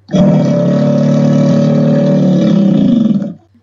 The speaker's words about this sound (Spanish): Alexa, pon un sonido de cocodrilo. Aquí tienes un sonido de cocodrilo.